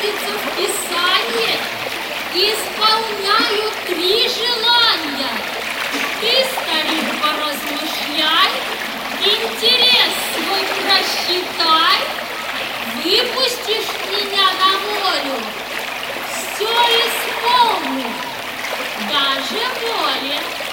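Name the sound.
water splashing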